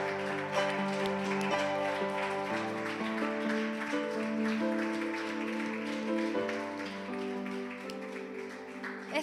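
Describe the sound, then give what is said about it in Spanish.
A church audience claps steadily to thank and praise God, the applause blending with sustained organ or keyboard chords that play underneath at moderate volume. “¿Cuántos lo creen y pueden darle gracias al Señor y pueden aplaudirle, celebrarle, honrarle?”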